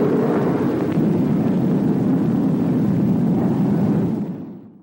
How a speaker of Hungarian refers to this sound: Így volt ez a P-80-nál és a későbbi repülőknél is. Bő százfős csapat nézi, ahogyan az első amerikai sugármeghajtású repülőgép felemelkedik a földről.